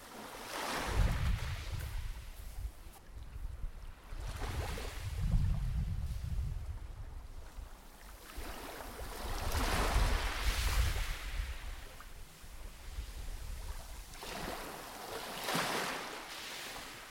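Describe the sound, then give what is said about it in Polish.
Sea waves wash and slosh near a boat in repeated broad surges, with steady wind rumbling across the microphone and no voices. “Jaka fajna tu jest ta woda.”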